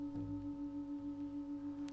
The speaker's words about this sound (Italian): E il suono della campana. Il suono della campana che io percepisco esiste indipendentemente dalla mia mente